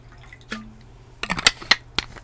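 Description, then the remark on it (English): A drink is poured into a glass, with sharp clinks and short splashy drips in a quick uneven series, fairly quiet and with no one talking. “So, before we begin, let's pour our favorite drink because I love to read with my favorite drink.”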